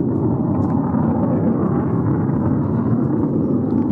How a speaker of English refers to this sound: Are there planes just circling around here now? Oh, I tell you what it is, I can see them now. It's fighter jets or at least not commercial planes.